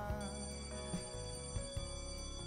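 A bell rings continuously with a steady, metallic, multi-toned jangle and small repeated pulses running through it. It holds at an even level throughout, and no one speaks.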